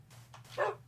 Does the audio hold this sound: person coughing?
no